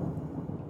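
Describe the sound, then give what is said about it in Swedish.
A low, continuous rumble of thunder rolls steadily outside, deep and muffled, with no voices present. “Du kan höra mullret utanför”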